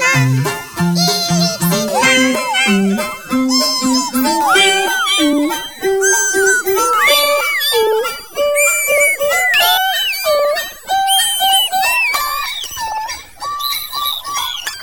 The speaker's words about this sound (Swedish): Ja, så där låter den. Eh, Sim Malmqvist Ladder. Eh, jag förstår att den fyller ett stort tomrum och behov. Just den signaturmelodin.